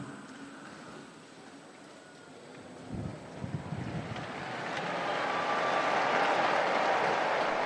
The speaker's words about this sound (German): Die Gläubigen auf dem Platz danken mit einem großen Applaus.